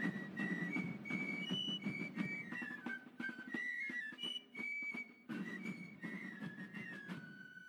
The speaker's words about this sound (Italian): Mentre tutto commosso dice così, gli sembra di sentire in lontananza una musica di pifferi e di colpi di grancassa